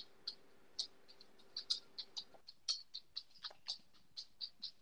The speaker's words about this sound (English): I think that's Lumber right now, giving you the metronome in the background, waiting for this answer. that's my dog walking on the floor. Her nails.